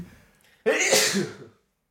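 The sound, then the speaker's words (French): A single loud sneeze bursts out suddenly after a brief quiet moment, its breathy spray trailing off over about a second, from a person with a cold or allergies. No one speaks. “oh, à tes souhaits.”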